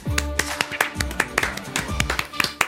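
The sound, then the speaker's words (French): An audience on Europe 1 applauds comedian Samy Améziane, alias Le Comte de Bouderbala, with dense, rapid clapping, sharp overlapping hand claps forming a steady crackling roar, with some cheering voices mixed in throughout. “Le public est en folie.”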